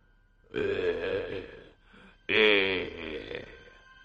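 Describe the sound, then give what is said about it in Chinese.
A voice lets out two low, rough groaning moans, each lasting about a second, separated by a brief pause; the second starts louder and more strained before trailing off. Heard inside a bar with a counter, window tables and leftover food. “风不觉这四处查看时，又听到了一声低吟。”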